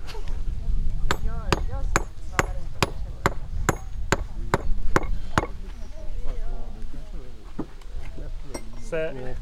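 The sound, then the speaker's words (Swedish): A hafted stone tool, a bila, strikes a stone surface in a steady run of about ten sharp, ringing blows, then a few softer, scattered knocks. It is evening out stone that was just roughly pointed. “En, en bila som jag kan jämna ut utan mer som jag precis har spetshuggit.”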